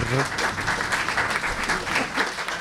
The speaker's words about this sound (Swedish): Och en stor applåd